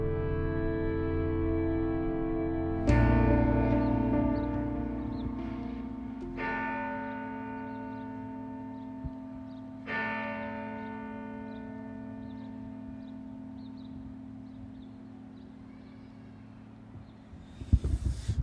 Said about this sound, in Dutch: klok slaat 7 op 6 mei.